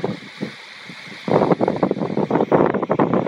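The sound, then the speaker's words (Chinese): Gusty wind and sea waves washing onto the shore at a coast with green sea water, where the wind is very strong: a quieter stretch of rushing noise, then a louder, surging roar that swells and buffets unevenly, with no voices. “这个不是杂音，是真正的风声、海浪声，还有在岸边慢慢踱着小碎步的海鸥，它们在海水里找寻吃的。”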